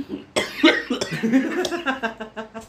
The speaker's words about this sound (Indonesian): sabar kenapa batuk ya minum minum dulu minum ya